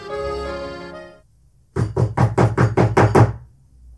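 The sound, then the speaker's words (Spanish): A rapid series of about eight sharp knocks on a door, loud and evenly spaced, following a brief held musical tone that fades into near silence. “se oye un golpe seco en la puerta”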